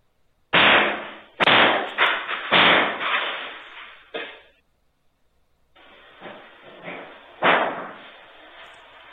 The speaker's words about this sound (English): I want you guys to guess which political affiliation these guys are by the uh, by the way this guy is uh, hammering the window.